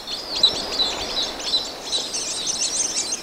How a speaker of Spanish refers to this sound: Es un grupo de vencejos acollarados, unos enormes vencejos del tamaño de halcones pequeños que vuelan hacia la cascada.